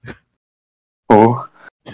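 A brief breath, then a loud, strained gasp-like groan from a racing driver over team radio, with no talking, followed by a couple of faint, shaky breaths.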